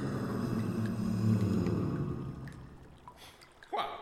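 A toilet flushes with a loud, rushing surge of water that gradually drains away, ending in a brief gurgling swirl. No one speaks.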